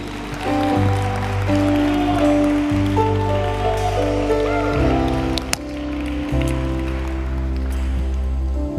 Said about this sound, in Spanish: Si alguien lo cree, dele un fuerte aplauso. Adórele.